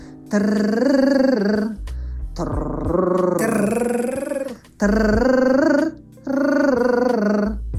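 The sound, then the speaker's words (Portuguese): As a vocal exercise, a voice sings a lip or tongue trill in four buzzing phrases with short pauses between, the pitch gliding up and down through different notes, steady and fairly loud with no talking. “Mas quem já consegue fazer exercícios, que já é seguidor aqui do Parlare, que já faz exercícios vocais na vida ou de canto, vibração de língua ou de lábio variando as notas, como por exemplo.”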